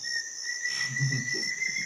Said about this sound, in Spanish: ¿Quiénes son Josefa y Eustavio? Los dos pájaros. Ah que a mí me suenan exactamente igual.